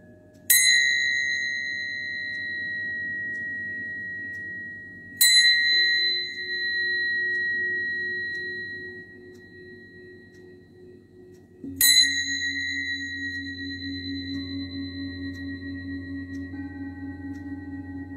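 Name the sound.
ringing bell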